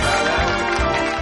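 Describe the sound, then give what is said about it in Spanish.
Canned audience applause sound effect played on the radio show Despiértame Juanma, a dense, steady wash of many hands clapping at once, loud and continuous throughout with no voices over it. “Qué buen ambiente con este público de mentira que tenemos aquí, de efectos especiales.”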